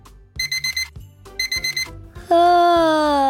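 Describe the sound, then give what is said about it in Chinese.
An alarm clock goes off with two quick bursts of four high electronic beeps, then a loud, steady, continuous ringing tone that holds to the end with no talking. “啊！闹钟响了，要赶紧起床才行。”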